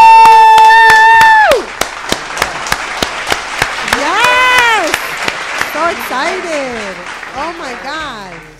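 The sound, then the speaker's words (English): Steady, evenly spaced claps welcoming special guest Chris Gotti into the building keep a quick rhythm throughout, while voices whoop and cheer over them with rising and falling cries, loud from start to finish. “Clap it up.”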